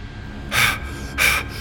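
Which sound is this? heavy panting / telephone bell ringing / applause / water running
heavy panting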